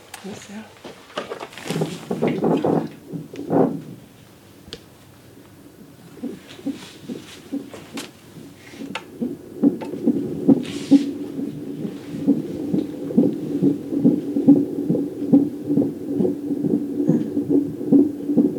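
A fetal heartbeat on a doppler monitor at a normal rate of 130 to 140: rapid, steady whooshing pulses over a low hum, after some scraping, rustling noise at the start as the probe is moved around.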